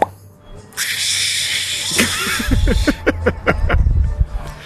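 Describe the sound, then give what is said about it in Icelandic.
A homemade champagne-bottle-opening effect: a long, steady hiss like escaping gas, then a rapid run of crackling, fizzing bursts with some low rumbling underneath, fairly loud throughout. “opnum kampaðisflöskuna.”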